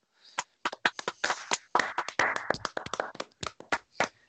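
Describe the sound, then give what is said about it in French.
A small group applauds the college football Upset of the Week: sharp, irregular hand claps overlap into a brief burst before thinning out into scattered individual claps, moderately loud with no talking. “Est-ce qu'on peut applaudir tout le monde pour l'Upset of the Week, s'il vous plaît”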